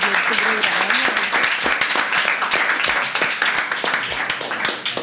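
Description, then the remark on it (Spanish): Sustained applause from a crowd, a dense wash of many hands clapping steadily and loudly for several seconds, with a voice briefly audible underneath at the start. “Eh, por favor, un fuerte aplauso a este, este”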